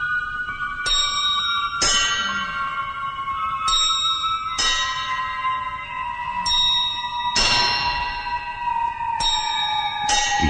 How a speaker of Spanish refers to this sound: comenzaron a oírse las campanadas que el reloj no podía dar.